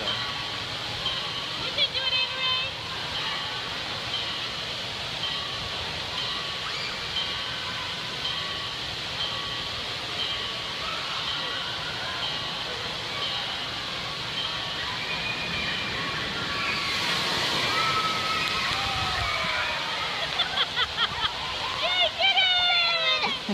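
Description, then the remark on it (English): Loud, steady rush of water churns throughout, swelling into a heavier splashing surge near the end as the water rushes underneath children and up into their faces, with faint voices and excited cries mixed in over the noise. “So if you didn't notice, what happened was the water rushed underneath of them and then up into their face and into their nostrils.”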